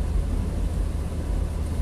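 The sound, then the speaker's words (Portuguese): Steady low rumble of a car's interior while driving during a storm, a continuous hum of engine and road noise at an even, moderate level with no one speaking. “Anyway, uh, estou agora a conduzir e estava, estava a pensar”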